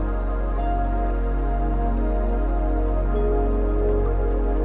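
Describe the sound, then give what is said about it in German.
Steady, loud rush of river water flowing past large rocks beneath a bridge, a continuous wash of noise with faint dripping and splashing textures and no voices. “Es ist auch hörbar, wie das Wasser an größeren Steinbrocken vorbeiströmt.”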